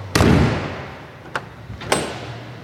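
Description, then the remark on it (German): The heavy door of a unique operations bus weighing several tonnes, fitted with tape recorders, shuts with a loud, boomy thud, followed by two sharper clicks of a latch as it is worked again, with a low steady hum underneath. “Wenn man die Tür mal zu und auf”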